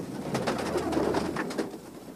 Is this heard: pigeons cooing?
yes